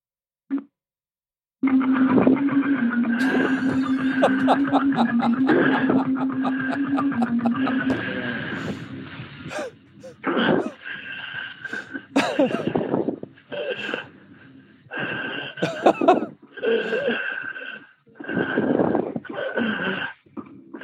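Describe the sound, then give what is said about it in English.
Heavy mouth breathing: a long droning, throaty breath, then a string of loud, raspy huffs in a rough rhythm with brief pauses between them. “This is the ultimate mouth breather.”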